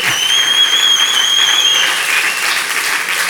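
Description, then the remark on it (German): An audience claps steadily in a dense, sustained wash of applause, with a faint high-pitched tone or whistle riding above it for the first couple of seconds. “Danke, danke, danke für die Blumen, danke für den Applaus.”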